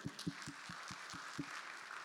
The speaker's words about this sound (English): And so we want to celebrate that. And so everybody clap your hands.